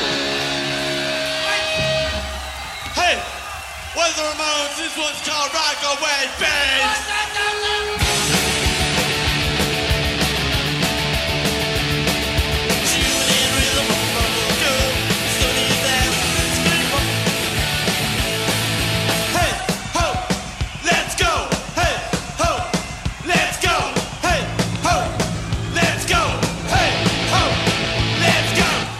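Loud, fast live punk rock with driving distorted guitars, pounding drums and shouted vocals, dense and raw throughout, with a brief sparser opening before the full band crashes in.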